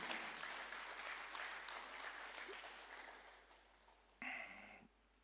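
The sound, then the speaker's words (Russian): An audience applauds the Lord in a dense, steady clatter of many hands that slowly thins and fades, then a short, loud vocal burst briefly cuts through near the end. “Дайте огромные, огромные аплодисменты Господу.”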